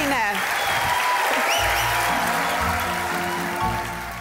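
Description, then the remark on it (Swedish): Sustained applause from a large crowd of Kristdemokraterna (Christian Democrats) party members at the party's national congress in Sweden, April 2015, as the newly elected party leader takes the stage: a dense, steady wash of clapping at full volume throughout, with faint cheering and voices mixed in. “Hon tar sig upp på scenen till partimedlemmarnas applåder.”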